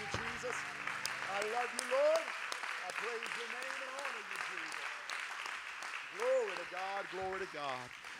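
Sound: audience clapping hands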